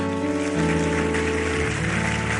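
An audience applauding God during a worship service, a dense, steady wash of many hands clapping that holds at full loudness throughout, with sustained musical tones underneath.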